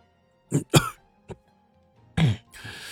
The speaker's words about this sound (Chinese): 八大铲说着，咳嗽两声，又咳出了一口鲜血。